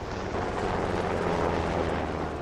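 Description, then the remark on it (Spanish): A helicopter drones steadily overhead, a dense, continuous roar of engine and rotor noise that stays loud and even throughout, with no voices. “Y de la nada otra vez, o sea, como que recibir una llamada súper crítica de que, córrele al hospital ya llegó tu mamá, va en helicóptero.”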